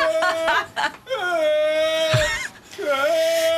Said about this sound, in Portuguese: Isto é material de um dos episódios de Cabras que Gritam com Pessoas, o spin-off do Homem que Mordeu o Cão.